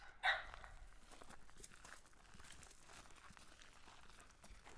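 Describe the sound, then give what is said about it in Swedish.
A long leash and a collar being fitted on an older female dog on a large meadow: soft rustling and handling noises, opened by one brief, sharp yelp-like sound, then steady low fumbling. “Nu blir det en lång lina och ett halsband på henne.”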